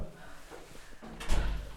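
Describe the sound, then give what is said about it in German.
A door is pushed shut: soft handling noises, then a single loud, low thud with a brief rattle near the end. No one speaks. “Nein, nein, nein, nein, nein, lass die Tür nur machen.”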